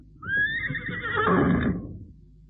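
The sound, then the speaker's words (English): A horse whinnies loudly as it shies, a high wavering neigh that rises then trails off over a couple of seconds, with some low rumbling and shuffling underneath. “What's up with him? The animal's got horse sense. This uh, top hat and frock coat's enough to make anybody shy.”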